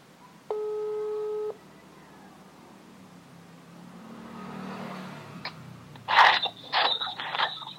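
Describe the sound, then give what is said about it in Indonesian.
A WhatsApp call ringback tone sounds once as a call is placed and connects, a steady electronic beep lasting about a second, followed by quiet background hiss and then louder crunching, rustling handling noises. “kita telepon dulu ya kita telepon by via WA oke okay, udah tersambung”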